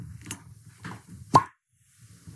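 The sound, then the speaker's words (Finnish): The seal of a bottle of Blossa vintage 18 glögi pops open with one sharp plop, preceded by faint handling rustles and followed by a brief quiet moment. “Avataanpa nyt tämä sinetti.”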